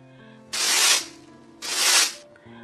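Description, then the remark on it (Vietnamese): Two broad, airy swishes of a broom standing in a kitchen corner, each about half a second long and fairly loud, separated by a short pause, with a faint steady tonal hum underneath. “Có tiếng xoẹt xoẹt, đấy là chị trổi đứng ở góc bếp đang rũ ra cười.”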